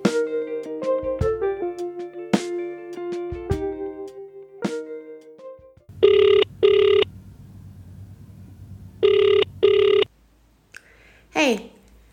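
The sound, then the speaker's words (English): A short electronic chime melody fades out, then a telephone rings in two loud double bursts a few seconds apart over a low hum, ending with a quick sweeping tone; a call coming in on the Walks and Worries show hotline for the Sobat Sobat, educators and art mediators at Documenta 15. “Thanks to the team of Sobat Sobat who contributed music of their own production to be broadcasted on this show, Walks and Worries, the hotline for our beloved Sobat Sobat, educators and art mediators on Documenta 15.”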